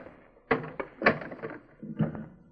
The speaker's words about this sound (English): Putting a bar across the door? Certainly. I don't want to be disturbed,